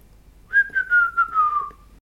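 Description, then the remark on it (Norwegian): A person whistles a short, simple tune of a few connected notes that drift gently downward in pitch. The whistle is clear, with no talking. “Så plystrer hun litt sånn.”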